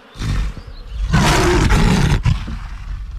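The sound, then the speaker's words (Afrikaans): A lion roars, a deep, rough growl building into one loud, sustained bellow that breaks off abruptly, with no voices around it. “Elke enkele dier hoor die magtige gebrul van die leeu”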